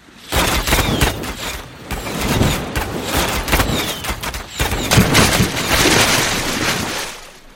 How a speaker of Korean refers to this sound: 일본 수군은 조선 수군의 빗발치는 화살과 화포와 불화살 공격에 속수무책으로 무너집니다.